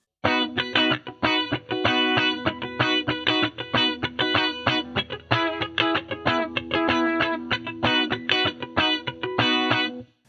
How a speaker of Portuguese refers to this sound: Eu vou dar uma tocadinha para você ouvir, é um mambo blues.